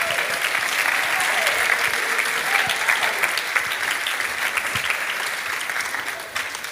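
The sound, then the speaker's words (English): An audience at First Church claps together in steady, dense applause that holds for several seconds before gradually thinning out at the end. “We just clap our hands.”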